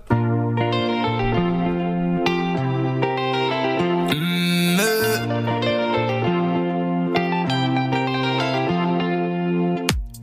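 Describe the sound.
An electropop song plays steadily at full loudness, with a pulsing synth bass, bright layered keyboard chords changing every couple of seconds, and a swirling effected sweep midway; a brief hummed vocal appears.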